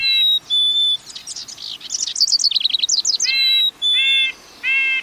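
Bright birdsong from native birds: clear repeated whistled notes with rapid trilling chirps and warbles in the middle, several distinct phrases over a quiet background, no voices.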